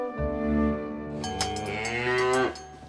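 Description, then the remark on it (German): A single long cow moo, rising and swelling in pitch before cutting off, heard clearly on its own without any talking. “Mit einer Kuh.”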